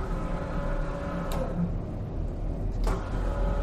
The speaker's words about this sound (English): As the group reached the top of a hill, a pulsing red light illuminated the late evening mist, and a metallic whirring sound filled the air.